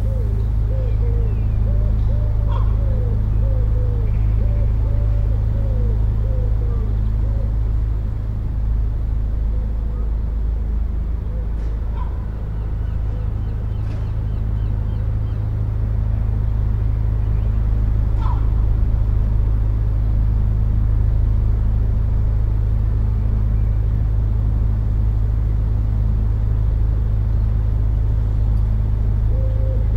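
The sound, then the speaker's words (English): A steady low rumble fills an outdoor railway scene in York, with pigeons cooing and other birds calling intermittently over the constant background drone. “And hear the sounds of the railway where York groundsel thrives.”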